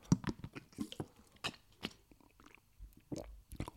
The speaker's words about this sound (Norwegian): Jeg har eh, litt eh, lunka vann å drikke. Hør.